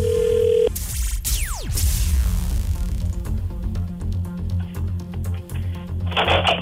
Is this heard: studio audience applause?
no